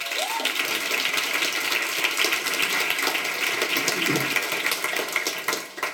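An audience claps steadily for several seconds to welcome a speaker, a dense, even patter of many hands that holds at a moderate level and starts to thin out at the very end.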